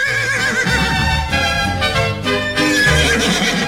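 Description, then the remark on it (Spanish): A horse whinnies loudly and shakily over a steady run of galloping hoofbeats. The sound is continuous for a few seconds, with a deep rumbling layer underneath. “Me buscan un buen caballo. ¿Sí o no? Y nos de galopada hoy, bien bueno, hombre.”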